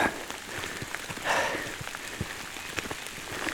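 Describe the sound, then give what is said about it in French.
Steady rain patters on a surface, a dense hiss of countless drops with a few sharper individual plinks scattered throughout, continuous with no voices. “Sous la pluie”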